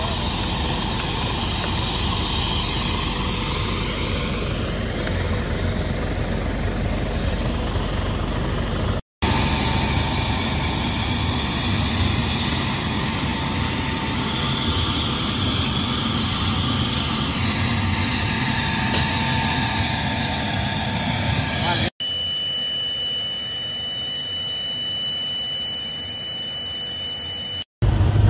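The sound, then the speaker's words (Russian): Loud, steady droning roar of an An-2 biplane's propeller engine, continuous and hissy, with abrupt cuts where the tone shifts; a thinner whining hum with faint high tones closes it out. No talking. “О кукурузник.”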